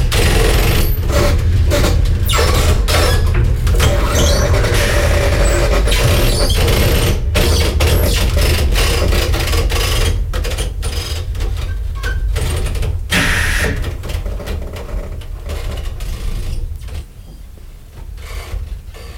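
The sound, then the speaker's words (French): Heavy railway machinery rumbles and grinds steadily as a train, set on a large machine, has its wheel sets swapped for a different track gauge between Mongolia and China, with repeated sharp metallic knocks and clanks, loud, no voices. “Donc du coup, il faut mettre le train sur un grand machin comme ça et changer l'écartement des rails.”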